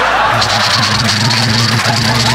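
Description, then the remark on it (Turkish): A voice imitates the sound of the sun in 45–50 degree heat in the shade, like wood crackling in a fireplace: a sizzling, crackling burn, a steady hissing rush over a low buzzing tone, held loud for about two seconds. “Yani böyle şöminede odunlar yanarken çıtır çıtır sesli ama bu defa yanan odun değil insanlar.”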